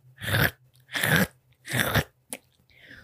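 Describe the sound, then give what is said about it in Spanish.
A sheep chews grass: three loud, crunchy chewing bursts in a steady rhythm, then a short click and a faint rustle. No one speaks. “oveja que todos los días al amanecer comía un poco de hierba.”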